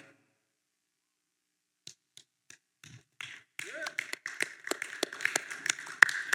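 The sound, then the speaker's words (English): A sparse, polite golf clap: a few isolated hand claps at first, building into a light, uneven smattering of applause that stays modest and restrained. “A little bit of a golf clap.”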